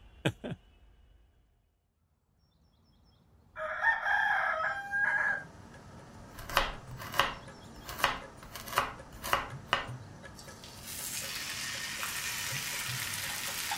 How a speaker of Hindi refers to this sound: ये सब में आज का दिन कब हुआ और कब मंडे मॉर्निंग का मुर्गा बांग देने लगा पता ही नहीं चला